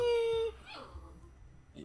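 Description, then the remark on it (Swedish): A dog lets out a single loud, high-pitched whine lasting about half a second, then trails off into faint, quieter shuffling sounds and a brief soft noise near the end. “Vad fan ska vi, vad fan ska vi göra med hundjäveln då?”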